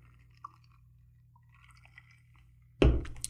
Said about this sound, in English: Forgive me as I sip my Coca Cola.